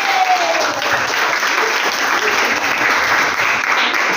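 An audience applauds its invited guests steadily, a dense wash of many hands clapping, sustained and fairly loud for several seconds with no talking over it.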